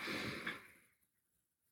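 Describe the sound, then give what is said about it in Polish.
A slow, deep breath drawn in during a heart-focused breathing exercise, soft and airy, rising then fading out over about a second before near silence. It is quiet. “I skupiamy uwagę na sercu i wyobrażamy sobie, że wdychamy powietrze do serca i wydychamy powietrze sercem.”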